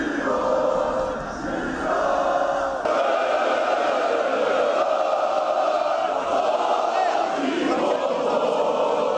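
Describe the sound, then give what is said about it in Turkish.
A large crowd of Galatasaray football fans lighting flares chants loudly and continuously, voices merging into a dense, rousing roar with sustained sung tones, as they welcome their winning team at the Florya Metin Oktay facilities. “Meşaleler yakıp tezahüratlar yapan taraftarlar oyunculara ve teknik heyete sevgi gösterisinde bulundu.”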